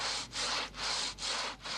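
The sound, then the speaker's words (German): A couple saws through a wooden log as a wedding custom: steady, rhythmic back-and-forth strokes, each a clear raspy scrape, about four strokes with brief pauses between them, no voices. “Ich würde behaupten, dass vermutlich 95 Prozent äh, der Paare sich natürlich nicht mit äh, dem historischen Hintergrund auseinandersetzt, wenn es darum geht, im Baumstamm sägen oder so.”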